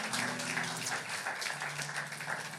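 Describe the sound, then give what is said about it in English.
Steady applause from a church audience, many hands clapping in a dense, continuous patter that holds an even level throughout, with a faint low hum underneath and no voices. “If you want to clap, clap, clap, clap, clap.”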